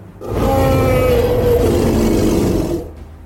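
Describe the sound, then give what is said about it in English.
A single deep dragon roar from the video game Skyrim, heard in Helgen just before the player's execution, loud, swelling quickly and holding for over two seconds with a rumbling, growly low end before cutting off. No one speaks. “Just before your execution in Helgen, you hear a deep roar.”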